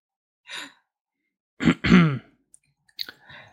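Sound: cough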